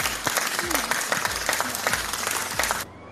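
An applause sound effect: steady applause from a crowd, dense clapping filling the whole clip at a moderate, even level before cutting off abruptly near the end.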